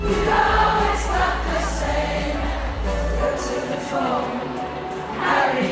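Before a concert has begun, a large crowd sings and shouts along to a pop song playing in the background, many voices blending into a loud, continuous wash with strong bass from the music underneath.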